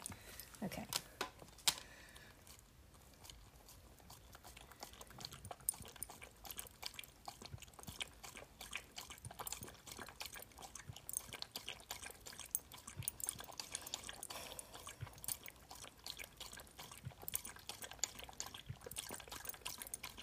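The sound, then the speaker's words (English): A male dog laps water from a bowl, a steady run of quick wet slurping licks lasting about twenty seconds with no talking. “Ooh, time to get your little drink. Okay, come on, go get your drink.”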